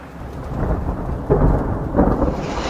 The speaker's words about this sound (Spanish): Y ha vuelto a caer la lluvia disimulada